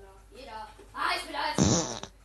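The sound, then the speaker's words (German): A fart sound effect played back by an Alexa smart speaker: a wavering, squeaky tonal stretch building into a louder, raspy sputtering burst that cuts off abruptly after about two seconds. “Frag mich doch mal nach einem knackigen Furz.”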